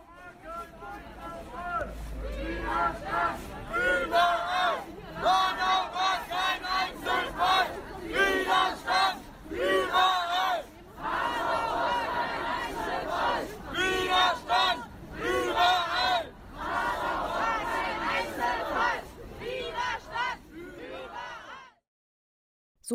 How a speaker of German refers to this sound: hörte sich einer der vielen Sprüche auf der Demo an, die am 19.02. letzte Woche Samstag in Hanau stattfand.